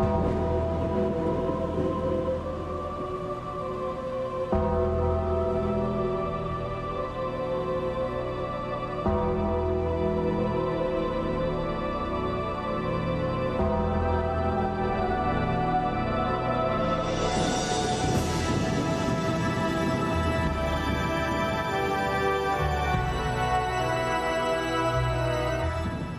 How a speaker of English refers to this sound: I mean that when you hear that when it came on, that bell toll, it's just like, especially when it first came out, and you were like, he was like scary, you know.